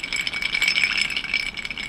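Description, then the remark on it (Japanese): Ice cubes that have begun to melt rattle hard inside a cup of fizzy soda, shaken vigorously with full force in a fast, continuous clatter that stays loud for the whole two seconds, with no voices. “これあれですね炭酸に入れた氷が溶け始めて多状態で全力でコップを振っている音ですまあこれもねいい音が取れたのと引き換えに炭酸ジュースが全力で取り散りました”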